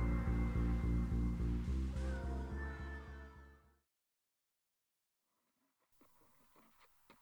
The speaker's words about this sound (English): That would explain the growling noise I keep hearing.